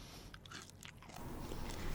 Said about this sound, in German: Schmatz nicht so laut. Entschuldigung, ich habe einen Husten im Mund wegen meiner Erkältung.